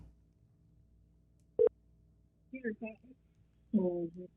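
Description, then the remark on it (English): An outgoing phone call to the caller's little sister rings on the line: a sharp click, then short bursts of buzzy, tonal ringing over a faint steady low hum. “Call my little sister out the blue.”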